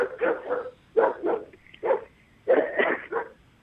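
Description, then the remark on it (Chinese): A dog barks repeatedly in short bursts, about a dozen sharp mid-pitched barks grouped in quick clusters with brief pauses, fairly loud and with no talking over them. “是找一个狗不叫的地方。”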